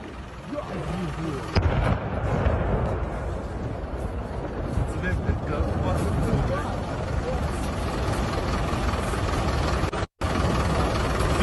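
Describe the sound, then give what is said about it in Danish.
Heavy, rumbling blasts from a missile strike on the airport in Ivano-Frankivsk, western Ukraine, roll on continuously, with a sharper boom early on and a brief cut near the end, as people talk excitedly over the din. “I går der var øh, profilen tidligt ude med at stedsbestemme en video af et missilangreb på lufthavnen i byen Ivano Frankivsk i det vestlige Ukraine.”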